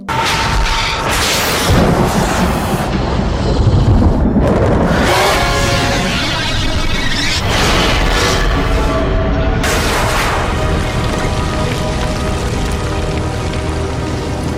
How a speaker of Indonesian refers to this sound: Berkat ledakan itu, semua pengikut Buraki musnah kecuali pemimpin atrok